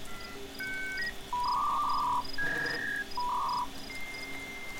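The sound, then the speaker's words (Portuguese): A dial-up modem handshake screeches on its own as a computer connects to an internet access provider: steady electronic tones, shifting beeping pitches and a burst of hissy static, loud throughout. “Esse ruído, que geralmente contrastava com o silêncio da madrugada, era apenas um padrão de sinais sonoros que representava uma comunicação entre o seu computador e o seu provedor de acesso à internet, um portal entre o mundo offline e o online.”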